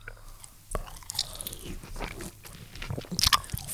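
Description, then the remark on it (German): Wet chewing and biting of a juicy orange slice right at the microphone, with squelchy crunches and smacking mouth sounds repeating irregularly, no talking. “Und werde jetzt mal essen und zwar so, so nah am Mikro wie möglich, dass ihr das, dass ihr das hört”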